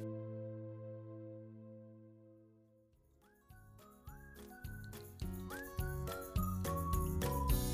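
Bright, upbeat instrumental music that opens on a held, humming chord, then kicks into a bouncy rhythm with a sliding whistled melody on top, building steadily louder. No one speaks.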